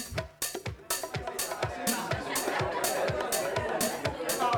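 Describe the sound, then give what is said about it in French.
A lively party crowd at a town-wide celebration in Saint-Malo, France, chatters in a dense, steady murmur, mixed with a loud, thumping rhythmic beat that pulses through the whole scene. “Toute la ville de San Malo est conviée et la fête bat son plein jusqu'au petit matin.”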